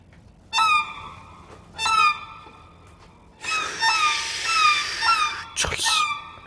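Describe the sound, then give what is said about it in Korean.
A violin imitates seagull cries: two short, sliding squawks, then a longer stretch of wavering, swooping calls, played fairly loud with no talking. “저는 바이올린으로 갈매기 소리를 낼 줄.”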